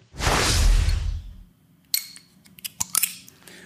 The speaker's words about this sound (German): Also ich finde, dass dieser Glückwunsch schon so ein bisschen nach Kronkorken klang. Also passt an der Stelle das Geräusch.